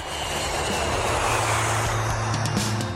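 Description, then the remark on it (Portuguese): A steady, loud roar of an airplane engine with a low droning hum underneath, filling the whole few seconds without any voices. “A gente vai aproveitando aqui, chamando o nosso avião da Poliesportiva.”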